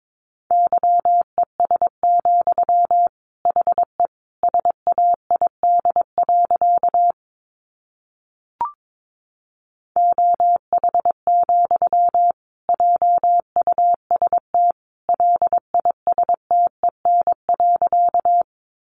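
Morse code at 22 words per minute, sending sentences from the top 500 words, as a single steady mid-pitched beep keyed at a brisk pace in runs of short and long tones, with a pause and a brief click midway. No voices.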